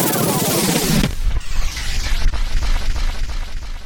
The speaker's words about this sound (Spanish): Después vendrían las explosiones en la estación del Pozo, en la de Santa Eugenia. Madrid estaba sufriendo el mayor atentado terrorista perpetrado jamás en España.